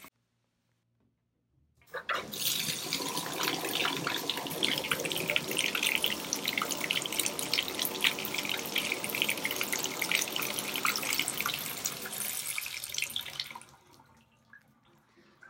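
Water runs from a shower in a steady, loud hiss, starting abruptly after a couple of seconds of quiet and cutting off near the end, leaving a faint drip-like quiet.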